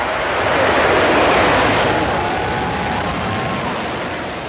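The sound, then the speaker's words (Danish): A SpaceX Falcon 9 rocket launch roar, launched from Florida in December 2018 carrying supplies to the International Space Station: a loud, continuous, crackling rumble that swells in the first second or so, then slowly eases, with no voices. “Det her, det var lyden af en af SpaceX's Falcon 9-raketter, der blev sendt afsted i december 2018 fra Florida med forsyninger til den internationale rumstation.”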